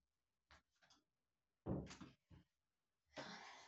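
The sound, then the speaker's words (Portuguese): A door is handled and pulled shut: a few light rattles, then a solid thud, followed by a brief knock and a longer scraping rush of noise at the end. “Fechei a porta aqui pra só para conseguir é, finalizar aqui a minha linha de raciocínio.”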